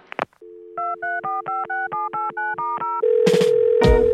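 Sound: telephone ringing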